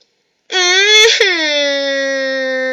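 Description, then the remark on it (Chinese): A baby cries out in one long, loud wail that starts sharply, briefly rises and cracks, then settles into a steady, lower-pitched sustained cry with no other voices. “嗯，宝宝又哭了起来。”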